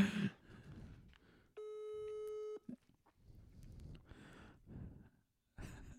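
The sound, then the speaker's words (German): A phone's ringing tone sounds once while a call waits to connect: a steady electronic tone lasting about a second, with breathing and rustling before and after. “Hoffentlich nimmt er ab.”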